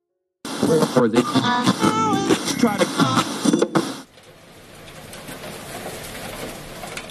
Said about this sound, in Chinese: 谷雨之时，雨声百谷。这是四月十九号谷雨那天，我在北京录到的雨声。